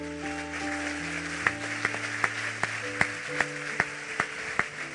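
An audience applauds the Lord, a steady wash of clapping with sharper, evenly spaced claps about twice a second, over sustained keyboard chords. No one speaks.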